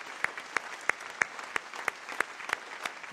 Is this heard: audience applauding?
yes